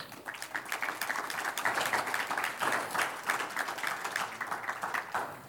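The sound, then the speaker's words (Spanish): A crowd applauds the Lord steadily for several seconds, a dense, continuous patter of many hands clapping at an even loudness without a clear rhythm. “Un aplauso al Señor.”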